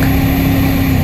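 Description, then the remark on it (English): The Cummins V8 turbo diesel engine of a 2016 Nissan Titan XD pickup truck rumbles steadily, a loud, even low drone with a constant hum and no voices. “This is the sound of the Cummins V8 turbo diesel in the new 2016 Nissan Titan XD.”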